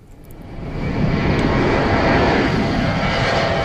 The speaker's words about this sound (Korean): 기내식 먹고 싶어지는 소리네요. 비행기가 이륙하고 있습니다. 비행기 이륙 소리입니다.